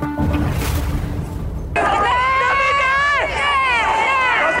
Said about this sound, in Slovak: Práve ste počuli zvuky z brutálneho zásahu policie a špeciálnych jednotiek na Národní tríde v Prahe v roku 1989.